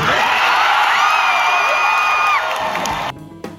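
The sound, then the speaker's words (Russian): A large crowd of Star Wars fans at a convention cheers and whoops loudly in a sustained roar, with high-pitched shouts rising above the din before it cuts off abruptly near the end. “И в этот момент я хочу просто вставить сюда радость толпы на этой выставке, чтобы понять, как это важно для всех фанатов Звездных войн.”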